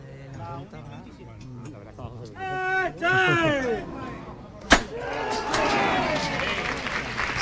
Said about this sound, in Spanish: Bueno, pues suena el llamador en la delantera, nos vamos a acercar. A ver si podemos recoger ese sonido.